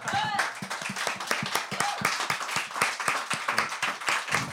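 An audience, asked by the host to applaud a guest, bursts into sustained applause, a dense stream of overlapping claps at steady volume, with a few brief whoops and voices rising above it at the start.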